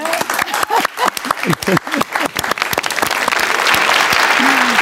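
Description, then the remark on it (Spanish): Audience applause that begins as scattered individual claps mixed with a few voices and laughs, then swells into a steady, dense roar of clapping that holds loud to the end. “Un aplauso para eso, ¿no?”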